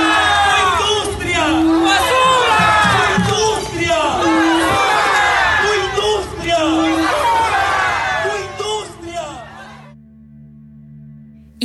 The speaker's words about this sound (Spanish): Frente al portón de madera, custodiado por agentes de la Policía Nacional Civil, los pobladores de San Pedro volcaron los canastos y costales llenos de basura. En el megáfono sonaba fuerte, tu industria, tu basura.